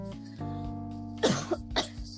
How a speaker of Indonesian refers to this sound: eh kon batuk kok di mic sih eh serius serius aku batuk